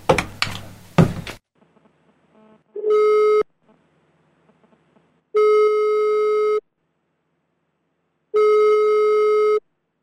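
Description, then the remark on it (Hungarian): A phone line's ringback tone, as a man calls his two bosses, sounds three times, each steady buzzing tone lasting about a second with long silent gaps between, preceded by a brief burst of clattering noise. “Joe Cronen pedig gondolt egyet, és felhívta két főnökét, hogy egyeztessenek.”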